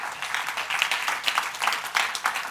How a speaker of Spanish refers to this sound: Alguien le da un aplauso al Señor esta noche.